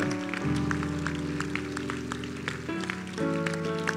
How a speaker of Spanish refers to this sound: Dale un aplauso al Dios de la gloria.